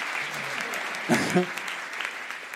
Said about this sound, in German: Du kriegst ja viel mehr Applaus als ich.